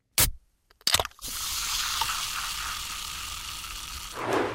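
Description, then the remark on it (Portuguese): A soda can is opened: a sharp click, then a pop and crack of the tab, followed by a steady, bright fizzing hiss of carbonation lasting a few seconds. “Como era óbvio, é alguém a abrir uma lata de refrigerante.”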